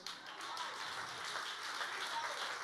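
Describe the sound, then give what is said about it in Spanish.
A crowd applauds with steady, dense clapping that stays at an even loudness throughout, a continuous wash of many hands with no voices standing out. “No, si usted le va a dar un aplauso, escuche algo.”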